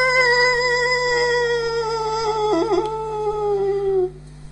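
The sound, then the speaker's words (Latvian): Wolf pups howl together in response, a long, sustained, gently falling cry with a brief wavering warble near the end, then cut off abruptly after about four seconds. No one speaks. “Un es jau teicu, ka šie kucēni ir ļoti viegli izprovocējami. Un ja tūmā nav nu, īsto vilku gaudos, gaudotāju, tad šie kucēni atsauc nu, uz jebko”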